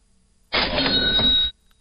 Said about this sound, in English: Do we have a cash register sound effect?